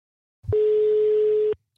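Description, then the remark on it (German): A single steady electronic telephone ringing tone, about one second long, heard loud on the line with a faint click at its start and no voices. “Antonio, geh ans Telefon.”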